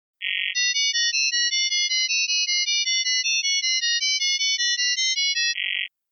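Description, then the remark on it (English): Data-over-sound transmission tones from WaveShare in slow mode, carrying data a WaveShare setup can decode: a steady run of about two dozen shrill, warbling multi-tone beeps, bracketed by a longer buzzy tone at the start and end, with no voices. “little unpleasant on the ears, but it is magic to my old man ears in the sense that it completely reminds me of a modem.”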